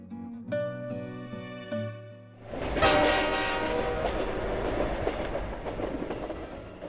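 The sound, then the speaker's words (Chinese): A train pulls into the station: a few sustained, chord-like horn blasts give way to a loud, steady rushing rumble and clatter of the train rolling in, with no voices. “正在这时，火车进站了。我看到呼啸而来的火车后，用尽全力向月台跑去。”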